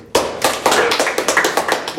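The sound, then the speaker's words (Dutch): A short burst of applause: about ten sharp, loud claps in quick, fairly steady succession, sounding like only a few hands, with no voices over it. “Eh, eentje daarbij is, eh, nou, dat is een beetje een goed, heel goed, nou, heel, ja, applaus voor het bruggetje.”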